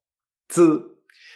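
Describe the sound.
A single short, buzzing voiced "z" sound showing how Spanish "zi" is pronounced, held for about half a second with a bee-like vibration in the throat, followed by a faint, soft hiss.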